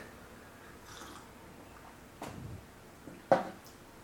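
A quiet sip from a drink: a soft slurp followed by a brief wet gulp, two short sounds against near silence with no talking.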